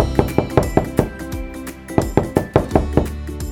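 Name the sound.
knocking on a door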